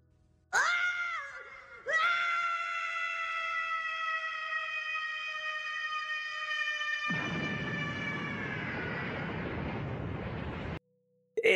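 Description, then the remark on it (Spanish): The anime character Gohan screams while transforming into a Super Saiyan: a loud, strained yell starts, breaks off briefly, then holds as one long sustained scream. A roaring rush of noise swells beneath it in the second half before everything cuts off abruptly. “tú escuchas a, Gohan gritar, este, ¡ah! ¡ah! con toda su alma y tú sientes, hasta tú mismo sientes cómo te transformas en Super Saiyajin.”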